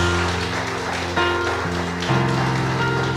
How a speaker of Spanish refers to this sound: Dale un fuerte aplauso al Señor Jesús.